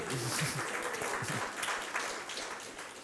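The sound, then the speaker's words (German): A crowd applauds steadily for about three seconds for the woman who painted the decorations, a dense, even patter of many hands clapping. A voice briefly speaks over the start before the applause carries on alone. “ich könnte ihr gleich schon mal einen Applaus geben, die hat das ganz schön gemacht.”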